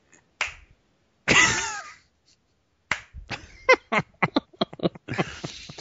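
A few sharp, isolated hand claps, then a loud wavering vocal whoop, followed by a quick, uneven run of crisp claps that pick up pace toward the end.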